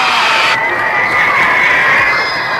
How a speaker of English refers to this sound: Ladies and gentlemen, the star of our show. How about a nice warm round of applause to welcome